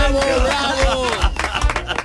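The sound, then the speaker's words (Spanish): A small group of colleagues in a studio breaks into quick, scattered applause, the clapping growing denser toward the end, with laughter and voices mixed in underneath. “¿Cómo rompen a aplaudir mis compañeros porque les salen”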